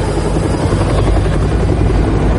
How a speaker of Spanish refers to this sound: Dos helicópteros se alejan de la explanada sobrevolando un bosque.